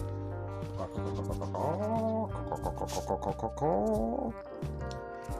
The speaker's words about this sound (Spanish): y adivina lo más interesante de todo, aprendió a cacarear.